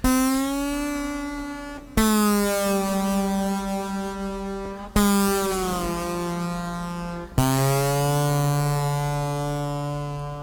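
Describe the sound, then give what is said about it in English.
Distorted slide guitar plays four long, buzzy sustained notes, each picked sharply and then gliding slightly in pitch as it rings out, loud with no talking. “Let me get rid of the distortion.”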